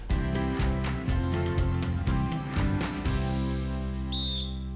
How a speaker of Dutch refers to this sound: Dan heeft het fluitsignaal me geklonken en kunnen we gaan starten.